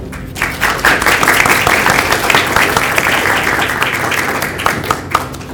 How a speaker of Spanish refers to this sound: Yo pido un fuerte aplauso a los dos para empezar la charla.